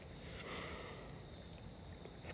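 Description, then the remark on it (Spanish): A steady, low wash of water at a bay murmurs in the dark on a June night, with a faint high drone of crickets running through it and brief soft splashes breaking the surface. “escuchando el sonido del agua, conectando con el ruido de los grillos, de las ranas.”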